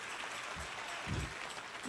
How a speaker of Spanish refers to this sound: Dale mejor ese aplauso al Señor. ¡Ey! Alabanza.